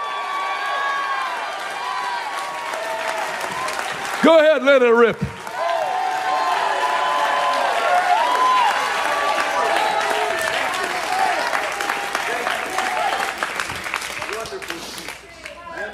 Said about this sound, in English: Go ahead, take 30 seconds and clap and shout.